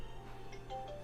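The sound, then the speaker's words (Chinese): A phone ringtone interrupting a video recording plays faintly, a few thin electronic tones rising and shifting in pitch over a low steady hum, with no one speaking. “好，抱歉，刚刚因为有电话打断了我们的录影哦，又把它去停掉了。”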